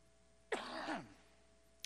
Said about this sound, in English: And for those that are new and wondering, like, why is Pastor coughing so much? I, um, I have struggled with bronchitis for a little bit.